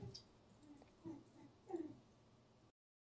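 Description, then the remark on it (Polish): A dog barks faintly, two short muffled yaps about half a second apart over a low background hum, with no talking. “Słyszałem psa.”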